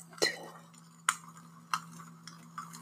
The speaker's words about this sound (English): Let me pour you a nice glass of wine. And one for myself.